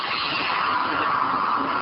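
A wood lathe rough-turning a piece of mizuki (dogwood) wood, the cutting tool giving a steady, harsh scraping hiss that holds unbroken and fairly loud for about two seconds, with no voices.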